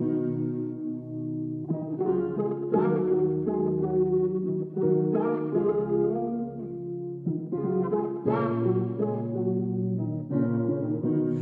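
A pop song's instrumental opening plays steadily with no singing: layered, reverb-soaked synth chords pulse in repeating phrases over a low bass, loud and close throughout.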